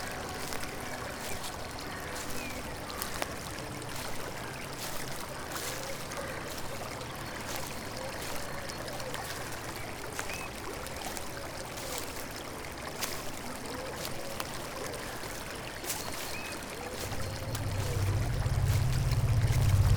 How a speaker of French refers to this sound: Nous allons suivre un instant ce ruisseau. Peut-être qu'il nous mènera à quelque chose d'intéressant.